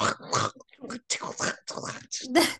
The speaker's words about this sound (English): that is her dog, by the way.